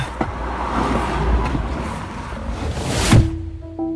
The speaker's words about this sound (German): Wir steigen ins Auto, Jerry wartet vor der Haustür.